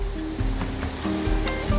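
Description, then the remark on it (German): Steady rushing water with a low engine-like drone and tonal hum underneath from multi-deck boats arriving at the customs port of Manaus and unloading travellers and goods at the quay, continuous and fairly loud with no voices. “Aus allen Richtungen steuern mehrstöckige Schiffe voller Hängematten den Zollhafen an, laden Reisende und Waren am Kai ab.”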